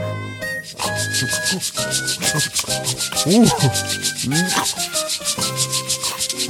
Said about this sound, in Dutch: Dat is een mooie grote tandenborstel. Even proberen hoor.